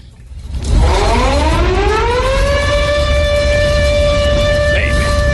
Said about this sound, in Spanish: ¿Qué pasó? ¿Por qué las alarmas y la gente saliendo de la casa despavorida?